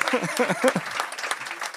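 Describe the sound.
An audience breaks into steady applause for a volunteer coming up on stage, a dense patter of many hands clapping at once, with a voice calling out over the first part of it.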